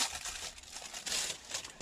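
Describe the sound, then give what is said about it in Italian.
Crinkling and rustling of an FFP3 face mask being handled and put on after getting out of a car, a steady papery crumple with a few sharper crackles, fairly quiet, with no talking. “adesso è il momento di scendere dalla macchina e mettersi la mascherina”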